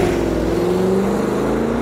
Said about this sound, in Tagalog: Mabilis akong sumakay sa passenger seat at sinenyasan ko ang driver na paharurutin ng truck papalayo.